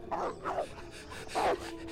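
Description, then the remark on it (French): A hungry pack of wolves in a forest barks and whimpers: three sharp, yelping calls, two in quick succession and one after a short pause, over a faint background hum. “Sept autres loups, affamés, le suivaient l'air menaçant.”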